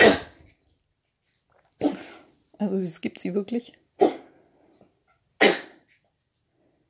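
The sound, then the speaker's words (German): A dog named Nikita coughs in four short, harsh, explosive bursts spread over several seconds, with a person briefly speaking between the second and third. “Jetzt hat Nikita Husten.”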